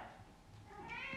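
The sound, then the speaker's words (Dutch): A 7-year-old cat meows insistently for attention, a drawn-out, rising cry in the background, with no talking over it. “jullie horen hem heel erg op de achtergrond nu.”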